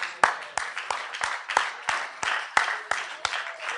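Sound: clapping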